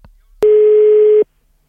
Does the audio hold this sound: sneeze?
no